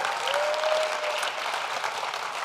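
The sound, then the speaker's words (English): A crowd applauds steadily, giving the Lord a hand clap of praise: many hands clapping in a dense, even wash of sound that holds at a constant level throughout, with a faint tone briefly audible early on. “So give the Lord a great big hand clap of praise.”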